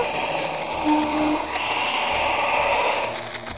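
Heavy, rough breathing comes through a phone line during a call taken in an underground parking garage, a steady hiss of harsh breaths with slight swells, muffled and band-limited, with the caller saying nothing.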